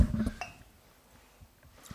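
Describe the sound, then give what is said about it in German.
A small amount of drink is poured over ice in a glass, just enough to cover the ice cubes. A short muffled splash is followed by a single bright clink of ice against glass, fading to near silence. Quiet, with no talking. “So, gerade die Eiswürfel so bedecken, oder?”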